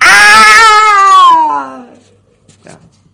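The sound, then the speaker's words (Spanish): An elderly woman, looking at a cage, lets out one loud, drawn-out scream of terror that starts high and slides downward into a wavering wail before fading, followed by a couple of faint soft knocks. “La mujer, de avanzada edad, se fija en la jaula y suelta un grito de terror.”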